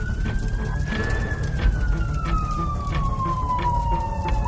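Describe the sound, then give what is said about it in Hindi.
A fire engine siren wails steadily, its tone rising slowly and then gliding back down, over a constant rumble of traffic and street noise, as the fire brigade is called to smoke coming from a house on Robinson Street in the Shakespeare Sarani area in June 2015. “अब तक आप ये जान चुके हैं कि साल जून 2015 में शेक्सपियर सरणी इलाके में रॉबिन्सन स्ट्रीट के एक घर से धुआं आता दिखा लोगों ने शोर मचाकर फायर ब्रिगेड को बुलाया”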